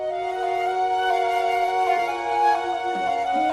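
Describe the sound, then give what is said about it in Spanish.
An orchestral arrangement of a pop song plays, with lush sustained string chords swelling steadily at a moderate, even level, and no voices over it. “Vamos a repasar otra de las versiones incluidas en …”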